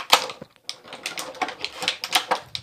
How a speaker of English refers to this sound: Very noisy plastic as well.